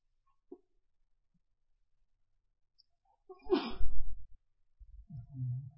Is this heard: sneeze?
yes